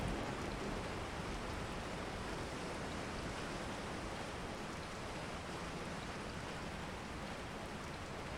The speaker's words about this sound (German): Deine Gedanken werden leichter, während du dich von der sanften Brise des Ozeans und dem rhythmischen Klang der Wellen tragen lässt.